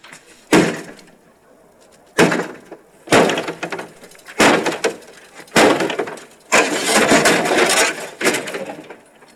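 A car being smashed apart: six loud, sharp crashing blows at irregular intervals, each followed by crunching, rattling debris, the later ones longer and denser. No voices.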